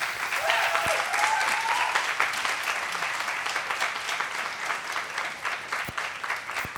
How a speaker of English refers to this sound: Ladies and gentlemen, give her another round of applause.